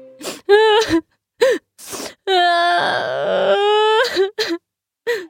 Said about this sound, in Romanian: Toată viața va rămâne un melc încet, când ajunse acasă, se trânti pe o frunză și începu să plângă de ți se rupea sufletul ascultându-l.